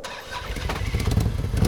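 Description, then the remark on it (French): A Harley-Davidson 1800 cc touring motorcycle, the biggest Harley model, cranks and catches, its deep rumble swelling louder and rougher over a couple of seconds, with no voices. “C'est la plus grosse moto de chez Harley, donc c'est vraiment ce qu'on appelle une version touring.”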